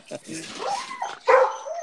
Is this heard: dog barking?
yes